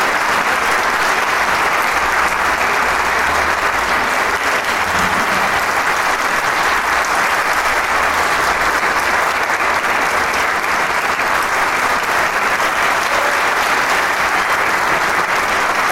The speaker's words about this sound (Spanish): el aplauso atronador, avasallador. Y los músicos pasando un paso al frente para recibir el homenaje del público.